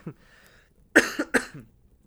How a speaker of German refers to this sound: ich hab einen Hustenanfall.